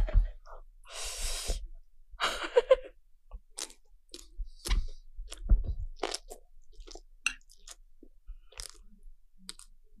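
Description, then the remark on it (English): A loud, crisp bite followed by repeated crunchy chewing, with irregular snapping crackles and a few sharp breaths through the nose between chews; no one speaks. “I'm gonna bite now.”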